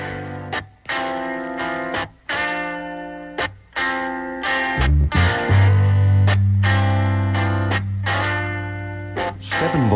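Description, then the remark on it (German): A classic rock song plays loud and full, with distorted electric guitar chords that stop and restart in short bursts before settling into a sustained, heavy groove. No one speaks. “…, habe ich jetzt äh, hier stehen. Auch einfach, weil es ein All-Time-Classic ist.”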